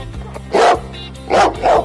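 A dog barks three times, one loud bark followed by a quick pair of barks, over a low, steady musical drone in the background.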